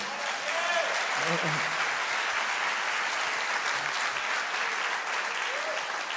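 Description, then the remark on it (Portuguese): Steady audience applause fills the whole stretch, a dense, even wash of many hands clapping at constant loudness, with a few faint voices calling out beneath it. “Se é para é aplaudir? Aplaude aí, pô.”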